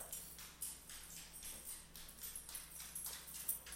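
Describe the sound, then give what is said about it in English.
The house dog walks into the room across a hard floor, its claws clicking in a steady, evenly spaced rhythm of light taps. The steps are quiet, with no voices. “sorry the house dog has arrived”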